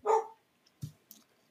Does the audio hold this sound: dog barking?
yes